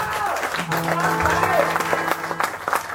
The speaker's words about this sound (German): Dicken Applaus bitte einmal.